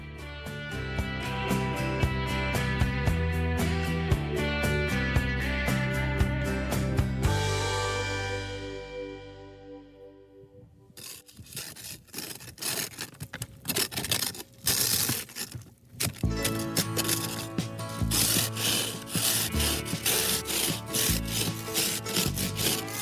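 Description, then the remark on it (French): Rhythmic scraping strokes as an ice scraper works frost off a car windshield on a March morning south of Buffalo, repeated rasping passes in quick succession, following a stretch of music that fades out. “est ce que vous entendez là eh ben, C'est moi qui dégivre ma voiture, un matin de mars dernier au sud de Buffalo.”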